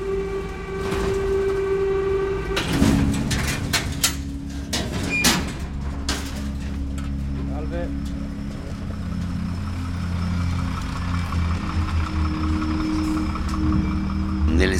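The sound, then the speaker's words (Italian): A metro train idles and pulls through an underground station of the Naples metro: a steady electric whine and low rumble, sharp metallic clunks and a door-like slide early on, with faint background voices. “stazione della metropolitana di Napoli c'è anche questo surplus che si ha a Napoli.”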